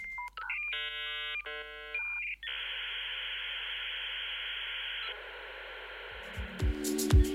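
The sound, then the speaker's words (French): A 56K dial-up modem, as used for home internet connections in the early days of the Internet, connects: quick touch-tone dialing beeps, then a long harsh hiss and shrill screech of the handshake, ending in shifting warbling tones. No one speaks. “Les plus jeunes d'entre vous n'auront peut-être pas reconnu le timbre si particulier du modem 56K qui initiait les connexions au tout début de l'Internet domestique.”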